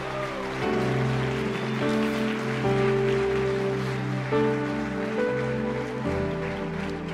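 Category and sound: crowd, audience applauding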